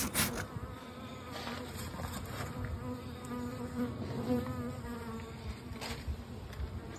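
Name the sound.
bees buzzing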